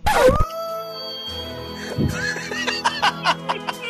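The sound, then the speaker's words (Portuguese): A person howls like a dog, a long wavering tone that rises and falls, with laughter and snickering breaking in toward the end. “uiva, …, uiva, uiva!”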